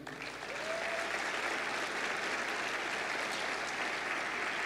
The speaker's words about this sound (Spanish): ¿Será que puedes dar un aplauso al Señor?